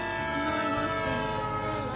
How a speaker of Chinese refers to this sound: 一九九五年，小镇里穿梭而过的，还是缓慢的绿皮火车，汽笛的声音，车轮摩擦轨道的声音，掩盖了他的最后一句话。